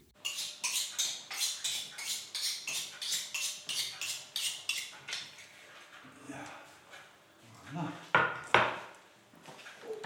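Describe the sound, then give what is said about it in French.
A small knife rapidly and rhythmically slices onions on a wooden cutting board, a steady run of sharp taps for several seconds, then a few louder scrapes and knocks as the pieces are moved. “Il prend sa planche, son petit couteau. Ah, Je prépare les oignons.”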